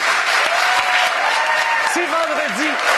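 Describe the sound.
Sustained audience applause for the announced next question, a dense, steady wash of clapping at full volume throughout, with a voice briefly rising above it near the end.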